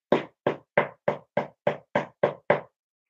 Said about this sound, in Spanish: Y Yeshua dijo, he aquí yo estoy a la puerta y llamo.